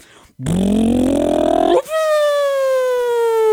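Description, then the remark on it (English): A voice imitates a cafe-style motorcycle with a Super Trap exhaust dying on a dyno during tuning: a buzzing rev climbs in pitch, cuts off abruptly, then gives way to a long, steady whining tone that sags slowly as the engine dies. “And I would ride that bike and we went to tune it and put it on the dyno, and it was the best worst engine death ever. So we get it up on the dyno, it goes,”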